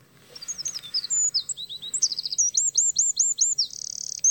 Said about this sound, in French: Troglodyte mignon.